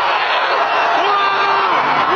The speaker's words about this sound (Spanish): O sea, están gritando en el cine. ese es el cine. Aquí en México. Qué bárbaro. Puro virgen en el cine. Puro, virgen, viendo Spider-Man No Way Home.